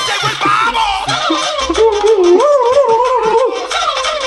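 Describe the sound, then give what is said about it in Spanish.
A loud, continuous turkey gobble soundbite played on the Coño Show, with a warbling, wavering pitch that rises and dips for about four seconds, prominent with no talking over it. “es el pavo gentil de leche coco. El pavo gigante.”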